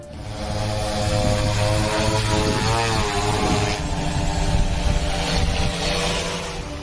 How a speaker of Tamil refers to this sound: தஞ்சை அருகே ட்ரோன் மூலம் விதை நெல்லை தூவி அசத்தும் விவசாயிகள்